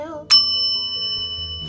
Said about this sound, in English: On this one, let me just get the bell just in case we need to hit that bell